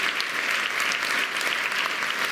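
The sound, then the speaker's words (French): An audience claps steadily to applaud the Lord, a dense, continuous wash of many hands at moderate loudness with no breaks and no voices standing out. “Est-ce qu'on peut applaudir le Seigneur pour la justification et la sanctification?”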